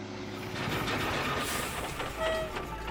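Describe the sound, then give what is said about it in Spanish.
A metro train runs steadily along its rails, a continuous rumbling roar with clattering and faint high metallic squeals rising and fading over the top, and no one speaking. “Y que si yo me muevo en metro o en Transmilenio, pues no tengo nada que ver con eso.”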